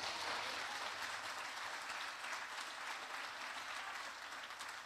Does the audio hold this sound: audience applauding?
yes